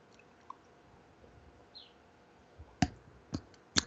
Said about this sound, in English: I'm going to take a sip of my spiritual espresso here.